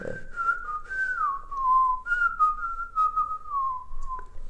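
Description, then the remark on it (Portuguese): A person whistles a slow, flowing melody, the single clear tone gliding gently downward in two long phrases with no talking. “é incrível porque tu podes até tocar eh, Mozart ou assobiando”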